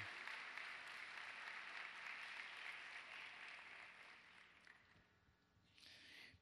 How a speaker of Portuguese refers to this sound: Aplauda mais para eu tomar água. Mais, isso, até eu tomar água.